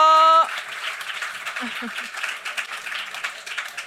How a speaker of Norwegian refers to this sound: Prøve å, prøve å, vente først til applausen har lagt seg, og så snakke.